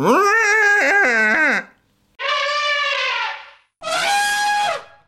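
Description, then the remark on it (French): A short elephant jingle: three loud, brassy trumpeting calls, each lasting over a second with wavering, bending pitch, separated by brief pauses. No one speaks. “et là, je voudrais un, petit, un petit euh, jingle euh, éléphant.”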